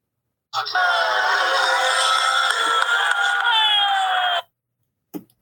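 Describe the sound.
A large grandstand crowd erupts in loud, sustained cheering for about four seconds as Hamilton drops out during the second practice session, many overlapping voices shouting and screaming together, then it cuts off abruptly, followed by a brief thump.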